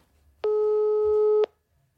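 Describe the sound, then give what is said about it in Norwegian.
A single ringback tone from an outgoing phone call to a crime journalist: one steady, slightly buzzy electronic beep lasting about a second, clear, with quiet surroundings before and after and no voices. “Jeg ringer krimjournalist og kollega”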